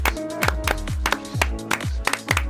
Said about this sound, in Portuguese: Ah, temos direito a palmas hoje. Palmas.